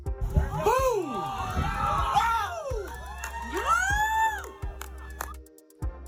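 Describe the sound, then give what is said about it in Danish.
A crowd at Myrtle Beach, South Carolina, USA cheers and whoops as a missile hits and explodes a Chinese spy balloon, with rising and falling shouts overlapping in excited bursts over a steady low hum, voices swelling loudly then fading. “Det er et missil, der farer mod ballonen og eksploderer, til stor glæde for fremmødte på Myrtle Beach, der betragter nedskydningen.”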